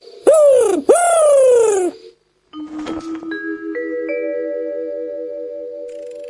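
An owl calls in a forest with two loud hoots that slide downward in pitch, followed by a string of bright, ringing chime tones stepping upward and sustaining. No one speaks.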